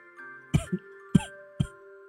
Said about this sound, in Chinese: 楚留臣低声咳嗽一下，收敛起笑意的脸上，立时显得越发的苍白